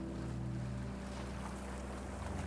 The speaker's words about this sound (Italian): Lascia che il suono delle onde calmi la tua mente.